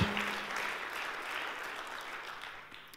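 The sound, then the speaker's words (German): A crowd applauds steadily to welcome the Internet Campus, a dense wash of many hands clapping at an even level for about three seconds, tapering slightly at the end with no one speaking. “Gebt ihnen mal einen geraden Applaus.”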